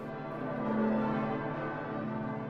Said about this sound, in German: Ich stand in Eichstätt im Dom auf dem Nordturm und es wurde das Fest Heilig Drei König eingeläutet